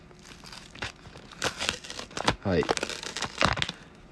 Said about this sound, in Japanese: えー、いつも A4 の袋に、えー、セロテープでですね、えー、蓋が、蓋っていうかね、閉まってありまして、まずそちらをね、ピラピラっとめくりたいと思います。音聞こえますかね